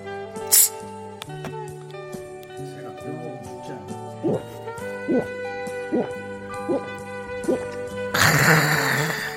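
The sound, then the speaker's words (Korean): A series of five or six steady gulping swallows of cola, like someone chugging a fizzy drink, over soft background music, ending in a loud, hissing fizzy burst. “그래, 콜라라도 한 잔 마시고 가.”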